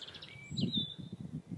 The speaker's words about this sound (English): And it's that sort of mixture of scrub habitat which is just perfect for birds. The birch here is just teeming with birdsong.